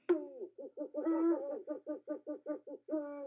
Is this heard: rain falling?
no